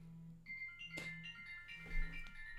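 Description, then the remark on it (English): A phone rings with a faint, melodic electronic tune of sustained high notes that shift in pitch, over a steady low hum, with no one talking. “I, I just needed to uh, convince this phone that I'm not going to answer it.”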